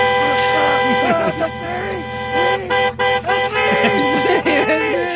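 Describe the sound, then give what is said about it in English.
A voice imitates the car horn of a driver behind another car, honking over and over in quick, frantic bursts, nasal toots that rise and fall against a steady tonal hum, loud throughout. “just driving behind him, frantically honking.”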